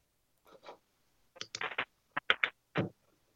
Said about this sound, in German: Äh, es raschelt. Es raschelt, ja.